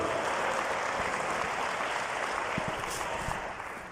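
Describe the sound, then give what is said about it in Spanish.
A church audience applauds the Lord steadily, a dense wash of many hands clapping together, holding strong for several seconds before tapering off slightly at the end. “Déselo fuerte al Señor, por favor.”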